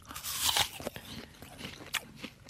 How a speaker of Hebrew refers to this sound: רגע, גם עכשיו עוד שאלה, עוד נגיסה אחת, ואני רוצה שתנחשי האם הוא תפוח מורעל או לא. מוכנה? מוכנה? הנה, לפי הרעש הזה.